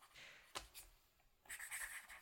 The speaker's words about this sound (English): I can hear Brass's pencil. That little wee scribble that we just heard.